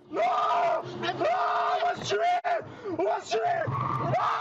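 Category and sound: panicked man yelling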